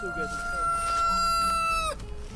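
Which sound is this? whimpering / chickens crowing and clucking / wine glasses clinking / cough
chickens crowing and clucking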